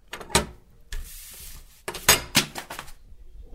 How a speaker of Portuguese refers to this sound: Tudo é muito metódico em Londres. O carteiro passa a correspondência pela porta do meu apartamento de segunda a sábado, sempre às nove e meia da manhã.